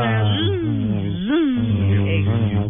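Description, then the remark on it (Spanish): A low, buzzing lightsaber hum from a Star Wars phone app that lets the phone be used as a lightsaber drones steadily for a few seconds, swelling into two rising-and-falling swooshes as if swung. It seems to be a voice imitating the sound, fairly loud. “pero además de eso, usted puede utilizar con esta aplicación su teléfono como un sable de luz y entrenar.”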